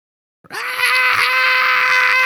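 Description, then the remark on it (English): A voice imitates a baby's shrill, high-pitched scream, one sustained loud wail held steady for nearly two seconds after a brief silence. “But my baby, for about 10 minutes, uh, lost his mind. The most high pitched screaming.”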